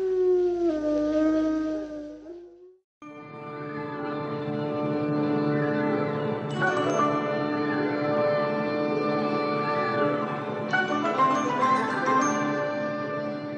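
A lone wolf howls in one long, wavering note for a few seconds, then breaks off as sustained, swelling music chords take over and continue steadily to the end.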